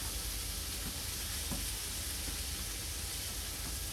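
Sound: meat sizzling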